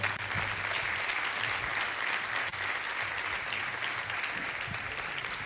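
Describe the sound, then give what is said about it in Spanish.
Sustained audience applause for three people being handed a diploma award, a dense steady wash of many hands clapping at an even loudness throughout, with no voices standing out above it. “Para los tres, ahí, fuerte aplauso, fuerte aplauso.”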